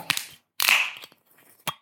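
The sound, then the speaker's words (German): A cork being worked out of a wine bottle: a sharp click, a brief hissing, squeaky scrape, then a crisp final pop, with no voices. “Ich mache mal den Korken auf.”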